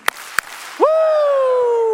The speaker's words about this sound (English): We're going to go two claps and a Ric Flair woo. You ready? This is for all the team members because we're going to celebrate them today. Ready? Give me two claps and a Ric Flair woo.